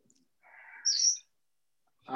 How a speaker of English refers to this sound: And there's our parrot. Sorry, folks.